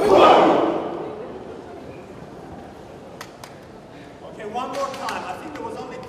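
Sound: audience shouting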